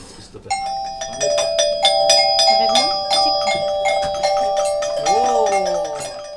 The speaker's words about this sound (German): Etwa mit einem Regenspiel mit Klangstäben und Klöppeln, das dann in einen Kanon mündet. Können wir mal ausprobieren, wie unser Gewitterregen klingt mit den lauten Schlägeln? Oh, bereit?